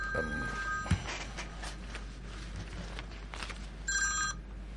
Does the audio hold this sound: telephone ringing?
yes